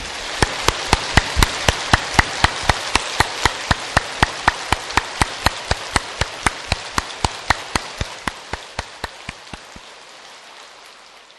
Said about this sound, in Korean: 우리가 다 같이 서약하고 다 같이 서로 권고하는 마음으로 박수를 한번 칩시다.